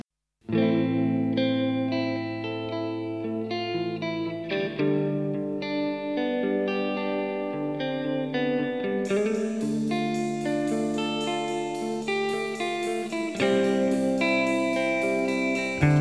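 A rock band song plays, opening with layered, effect-laden guitars holding sustained chords before drums and bright crashing cymbals kick in halfway through, building a loud, full instrumental without vocals.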